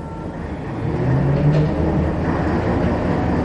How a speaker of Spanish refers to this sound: Acto seguido, el autobús se puso en movimiento.